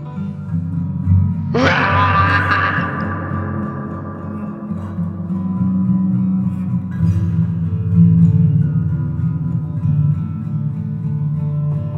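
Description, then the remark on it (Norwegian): A thick, washed-out wash of heavy reverb smears a low, groan-like sound into a continuous drone, with a bright burst early on that rings out slowly before fading back into the murky sustain. “Er det greit hvis jeg legger på klang på resten av eh, episoden?”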